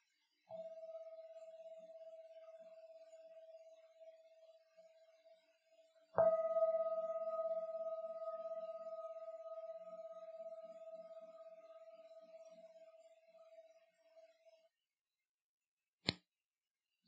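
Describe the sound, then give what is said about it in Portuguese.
A meditation gong is struck twice, its steady, pure ringing tone lingering and slowly fading away into silence, with a brief sharp knock near the end. “Vou tocar o gongo e peço só para estar em contenção ao som até deixarem de ouvir por completo.”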